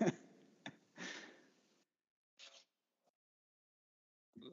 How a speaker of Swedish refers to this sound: Nu klickar jag bort min mick också.